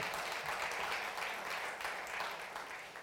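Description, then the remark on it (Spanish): An audience applauds for Christ, a dense, steady wash of many hands clapping for about three seconds, fairly loud at first and easing off slightly toward the end. “Le damos un aplauso al Cristo que todo lo puede, al Cristo de la gloria.”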